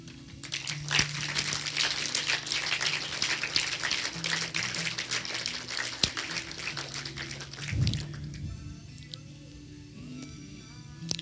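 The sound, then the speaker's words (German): An audience claps for Jesus after a prayer, in a dense, steady burst for about eight seconds, then the applause quickly thins out and fades, with a low steady hum running underneath. “Lass uns Jesus mal einen Applaus geben dafür.”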